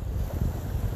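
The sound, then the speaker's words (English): A steady, low roar of ocean waves crashing onto the shore on 25 October 2019, mixed with gusty wind rumbling against the microphone, continuous throughout with no voices. “It is the sound of the waves crashing onto the shore.”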